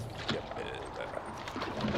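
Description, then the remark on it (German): Water sloshes and laps steadily around a small, overloaded rowboat that sits barely above the water as it moves along, a continuous splashing texture with faint muffled voices in the background. “Das Boot ragt kaum mehr aus dem Wasser raus.”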